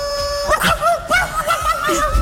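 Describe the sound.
A person imitates a hurt wolf whose tail has been pulled, producing a few quick, wavering whimpers that rise and dip in pitch, fairly loud for about two seconds.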